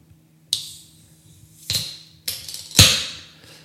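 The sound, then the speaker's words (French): A beer can being opened clumsily: four sharp metallic clicks and pops, each followed by a short fizzy hiss, with a faint low hum underneath and no voices. “Très mauvaise ouverture de canette.”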